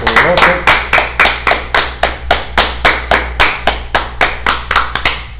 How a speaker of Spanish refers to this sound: mis amados, un fuerte aplauso a todos